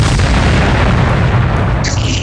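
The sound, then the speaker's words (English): A massive, roaring explosion rips a large hole in the ceiling of a sub hallway in the Royal Space Fortress. It is loud, with dense rumbling low end that sustains throughout before a faint high-pitched ringing emerges near the end. “A huge explosion rips a large hole in the ceiling of a”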